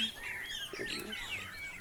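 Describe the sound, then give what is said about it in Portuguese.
Small birds chirp and twitter continuously in a quiet outdoor setting in Mumbuca, in the Jalapão region of Tocantins, Brazil, their high, thin calls overlapping with no voices present. “A gente vê o silêncio, só escuta o barulho dos passarinhos, né?”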